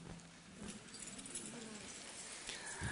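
Keys jangle faintly in a few brief metallic clinks scattered through the quiet, with no one speaking.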